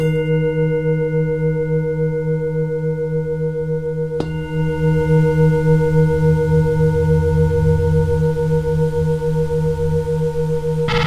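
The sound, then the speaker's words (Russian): A singing bowl rings with a steady, shimmering tone full of layered overtones, sustained the whole time, with one soft strike partway through that refreshes the resonance. No voices. “В результате рождается продолжительный, поющий звук, наполненный обертонами.”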